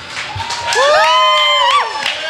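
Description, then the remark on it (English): A crowd at Blind Bob's cheers loudly for Paul Monin, with rising whoops and shouts riding over a steady wash of clapping that swells and holds for a couple of seconds. “really appreciate you, you guys having us here tonight let's hear it one more time for Paul Monin.”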